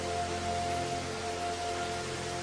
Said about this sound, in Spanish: el ruido de las aguas empieza a desaparecer.